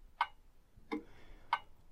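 A wall clock ticks steadily and quietly, three crisp clicks about two-thirds of a second apart, the middle one lower in tone, giving a soft tick-tock rhythm.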